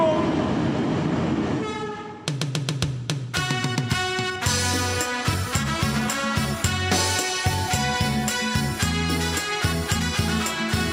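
A Laos–China railway train rumbles along for a couple of seconds, then loud, sustained horn blasts sound repeatedly in a steady, pulsing pattern over the continuing rail noise.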